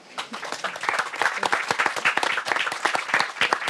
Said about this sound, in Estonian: ja ma arvan, et äh, saadame oma panelistid siit äh, järgmistele aruteludele siin või seal ühe sooja aplausiga.